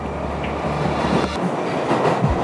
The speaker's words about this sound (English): The train burst forward once again and the darkness returned. There weren't any tunnel lights now, it was just a void.